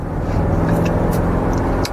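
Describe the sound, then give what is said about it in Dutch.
A powerful 600 hp car engine roars hard at full throttle in fourth gear, a loud, deep and continuous rumble that holds steady for the whole couple of seconds, with no voices. “Oh ja, in zijn 4 haal ik even vol door de auto met 600 pk.”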